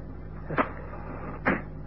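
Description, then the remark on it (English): Two quick, scratchy rasps about a second apart as a match is struck against a box in the dark after the lights have gone out, set against a steady low background hum with no voices. “The matches. Uh, we know it's no good trying the light switch. Here we are. Matches, go.”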